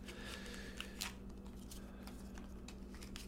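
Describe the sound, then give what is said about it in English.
Tarot cards being shuffled before drawing cards for a spread: soft, quick papery flicks and slides repeating irregularly, quiet overall, over a low steady background hum with no one talking. “As I shuffle, let's take a deep breath”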